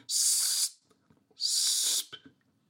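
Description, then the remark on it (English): A person imitates a robin's long, thin seep call, a contact call, twice: two drawn-out, high, hissy whistles, each under a second, fairly loud with a short pause between. “I mean, I remember hearing a call from a robin, which is like a long.”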